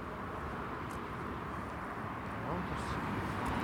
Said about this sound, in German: Rauschen der Autobahn. Also es sind keine Wasserfälle.